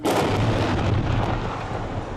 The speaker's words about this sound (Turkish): Bu görüntünün İran'da düşen Ukrayna uçağının füzeyle vurulma anına ait olduğu iddia edildi.